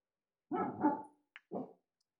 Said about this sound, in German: Ja, wenn ihr ab und zu einen Hund hört, ähm, lasst, euch, lasst euch nicht äh, davon stören. Das sind äh, Geräusche, die wir, die wir absichtlich einbauen, um ähm, den Eindruck zu erwecken,